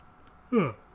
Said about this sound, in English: Excuse me, I was yawning and I was hoping you would say something, but I realized I didn't leave you any place.